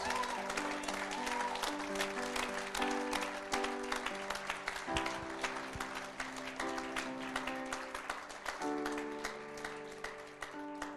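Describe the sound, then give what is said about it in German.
Steady audience applause of joy and gratitude during a live stream, with dense, continuous clapping running the full length, mixed with sustained musical tones that shift in pitch partway through. “Augen öffnen und ihr dürft einen Applaus der Freude und der Dankbarkeit.”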